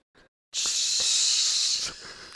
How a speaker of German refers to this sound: mach nochmal einen Aufguss. Schütt nochmal ein bisschen was drüber.